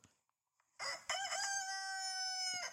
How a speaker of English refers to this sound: Let's let's listen to a, car- a rooster.